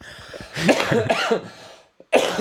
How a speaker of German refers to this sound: also muss ich wirklich husten. Ja, ja. Aber, aber weil ich gleichzeitig lachen musste.